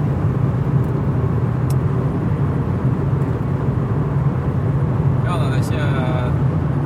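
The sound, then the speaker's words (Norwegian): A steady, continuous low road rumble fills the inside of a car driving about halfway between Rygge and Ski, recorded by a GoPro on the dashboard, an even droning hum that never changes in loudness, with a brief high chirping near the end. “Jeg har filma hele den seansen her i bilen.”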